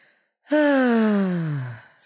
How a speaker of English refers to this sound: Um this exercise is called ocean breathing.